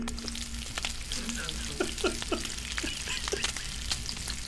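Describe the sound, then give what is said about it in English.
Bacon sizzles steadily in a pan, a dense crackling hiss with scattered pops and spits, continuous over a low background hum. “Is it sizzling? Is that the bacon or the fish? That's the bacon.”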